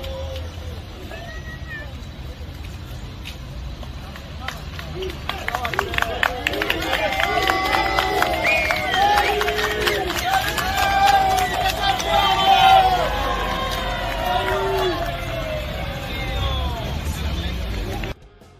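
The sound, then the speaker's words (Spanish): A small outdoor crowd at a stadium cheers, whistles and shouts as the team bus arrives with sirens, the excited voices swelling in the middle over a low engine rumble, then easing off toward the end. “Bueno, y justo, justo regresando a esto del estadio, poquita gente, ¿no? La verdad, para recibir ahí el autobús.”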